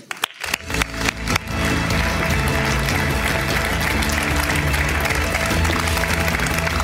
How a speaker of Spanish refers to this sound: Y se llama Tom Callen. Un aplauso para él.